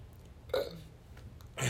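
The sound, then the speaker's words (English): A short, guttural burp erupts, followed moments later by a second, rougher belch, with low background rumble in between and no talking. “As I continue to fucking burp.”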